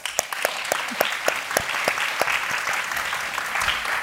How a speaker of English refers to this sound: perhaps we can give her a little applause.